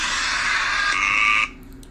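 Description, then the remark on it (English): A loud electronic timer alarm, set off by mistake, buzzes steadily for about a second and a half, then cuts off abruptly, leaving near silence. No one speaks. “as you may have just heard, I screwed up my timer there.”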